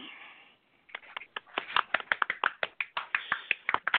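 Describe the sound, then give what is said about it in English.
A small group of celebrants at a ritual ceremony applauds, with scattered, uneven claps building after a brief pause following a short murmur of voice. The clapping is moderately loud, with no talking over it. “celebrants applaud.”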